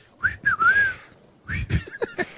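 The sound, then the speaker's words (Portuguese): A person whistles an imitation of a great kiskadee's call: a few short rising-and-falling phrases, then a brief pause and a second burst of quicker whistled notes, fairly loud and with no talking. “Os, é, não, o bem te vi.”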